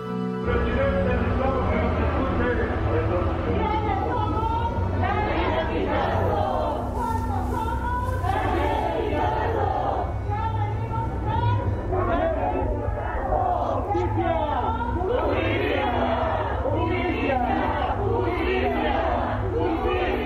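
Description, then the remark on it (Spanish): A crowd of about 50 protesters, friends and family demanding justice over a death, shouts loudly in front of the Municipal Palace, many voices overlapping into a dense, steady roar of chanting and yelling that stays unbroken throughout. “Ellos gritaron fuerte frente a la propiedad.”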